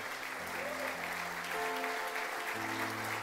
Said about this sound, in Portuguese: Quem pode dizer aleluia? Quem pode aplaudir Jesus por isso? Ele é bom, aleluia.